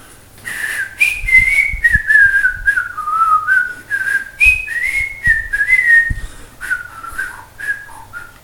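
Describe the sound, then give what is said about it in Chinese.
A person whistles a brisk, military bugle-call style tune: clear, bright notes in short repeated phrases that step up and down. The whistling is loud and alone, with soft breathy thumps underneath. “哎，非常，嗯，军军队那种感觉的啊，口哨也能吹得好，非常不容易。”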